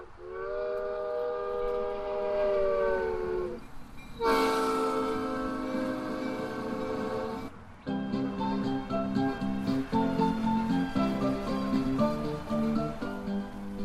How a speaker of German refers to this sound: Zur Abfahrt bereit steht ein Zug mit zwei Waggons auf Gleisen, die um das Gebäude führen.